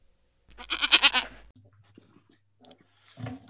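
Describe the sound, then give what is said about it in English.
A single loud, wavering goat bleat lasting about a second, clear, followed by quieter rustling and a brief low thump. “We're gonna get you through after the goat.”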